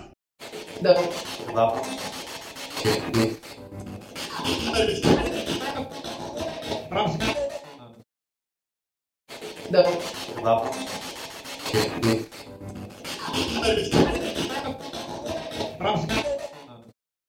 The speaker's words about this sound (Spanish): he intentado crear un, un barrido de frecuencia modificado conectando la Spirit Box directamente al PC